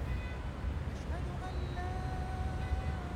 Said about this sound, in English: That is the sound of a city waking up. I'm standing right in the heart of Abu Dhabi, looking out over the white domes of the Sheikh Zayed Grand Mosque to the glittering city skyline and the sea beyond